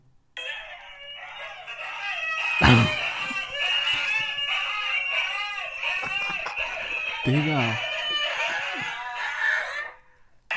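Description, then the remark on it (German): A pack of husky dogs screams and howls together in a loud, continuous chorus of overlapping high-pitched wails, with a person briefly exclaiming partway through. “Ähm, okay, so hören sich Huskies an.”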